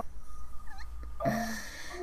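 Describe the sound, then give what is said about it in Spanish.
A small dog lets out a brief high-pitched whine partway through, faint squeaky sounds before it, over a low steady background hum with no one speaking. “Eh, pero mira, no, oiga, perrito.”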